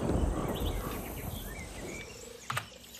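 Pre-recorded crickets, used as a sound effect for a film scene, chirp steadily in a continuous high-pitched chorus over an outdoor ambience with a low rumble, faint bird-like chirps and a brief louder rustle near the end.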